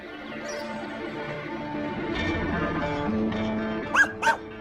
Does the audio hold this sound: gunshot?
no